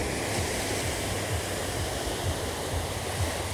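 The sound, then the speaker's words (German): A steady, full roar of surf washing onto a beach, continuous without clear pauses between waves, with no voices present. “Ihr werdet es nicht für möglich halten, aber ich habe jetzt genug WLAN, um auch mal wieder vom Strand aus eine Folge zu gestalten.”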